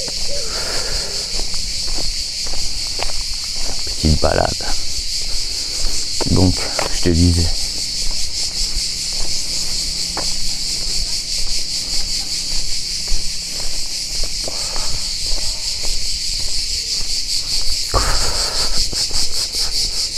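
Cicadas drone in a loud, unbroken high-pitched buzz that fills the whole recording, with a few brief low thumps or knocks breaking in partway through.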